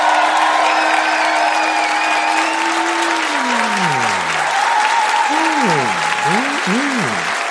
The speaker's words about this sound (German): Ihr dürft auch für mehrere Ab äh, Kandidaten applaudieren, das wird nicht gezählt, sondern da geht es um so eine Gesamtintensität. Oh, und jetzt also erstmal euer Applaus